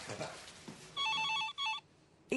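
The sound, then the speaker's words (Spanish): A telephone rings in two quick bursts of a warbling electronic trill, following a moment of faint background voices. “Elsa atiende el teléfono.”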